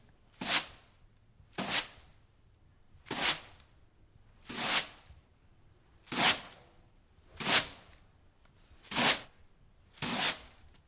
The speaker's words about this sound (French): Oui, quelqu'un balaye le sol.